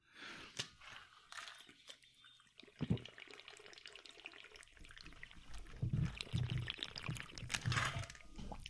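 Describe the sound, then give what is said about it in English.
Water sloshes around inside a water bottle in irregular, splashy bursts, fairly quiet, growing a little busier toward the end with no talking over it. “Oh, I got a water bottle that uh, doesn't sound like a water bottle, and I tried to make it.”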